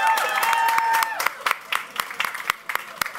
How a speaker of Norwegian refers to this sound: Klapp, klapp, klapp.